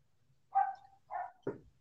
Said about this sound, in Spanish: Ah, no, pues es que estoy, eh, eh, enfocado en escuchar al, perrito ladrar eh, y pensando, pues de qué tamaño es. Como ladra mucho y es castroso, debe ser de los pequeños. Es pequeño y es castroso hasta el hijo de pinche madre.